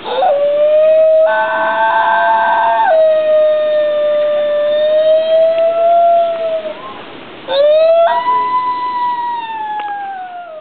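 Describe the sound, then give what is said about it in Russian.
A New Guinea singing dog gives long, high, wavering howls with a ringing, siren-like tone. One sustained howl slowly rises and falls, breaks briefly, then a second swoops upward and holds. “А вот пятая линия, так называемая новогвинейская поющая собака, это собаки, которые до сих пор живы, они до сих пор есть на свете.”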